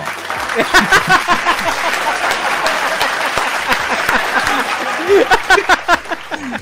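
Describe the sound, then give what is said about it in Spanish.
A burst of applause played as a sound effect, a crowd's dense rapid clapping that holds steady for several seconds with a few louder peaks near the end, plus some faint cheering mixed in. “Puedo poner aplausos desde aquí.”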